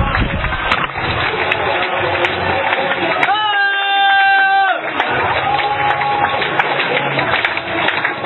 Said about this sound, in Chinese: 我觉得透过大家的掌声，我能感受到一种热情，啊，跟我们武汉的天气一样，啊，这么热烈。而且呢，我真的发自内心的相信这是胜利者的掌声